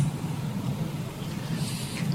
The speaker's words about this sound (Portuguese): Um caminhão de combustível né, está manobrando para poder entrar neste Trevinho, que, que daria acesso ao trevo, está também se dirigindo a Santana do Livramento.